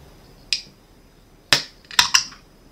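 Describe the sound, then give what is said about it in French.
A large drink can being opened to pour a drink: a sharp click, then a louder crack followed by two quick snapping pops with a brief bright fizz, and no talking. “J'ai une grande canette à boire.”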